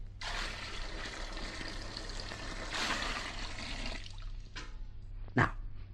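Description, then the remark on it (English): A gallon of water from Niagara Falls gushes and pours into a witch's cauldron in a steady rush for about four seconds, swelling briefly midway, then two short splashy bursts follow. No voices. “And the final ingredient, a gallon of water from Niagara Falls.”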